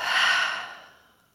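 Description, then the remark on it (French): One strong, airy breath: a deep inhale through the nose, then a forceful exhale through the mouth that is fairly loud, swells quickly and then trails off softly over about a second, with no talking. “Et pour vous redynamiser, vous pouvez prendre une profonde inspiration par le nez et souffler fort par la bouche.”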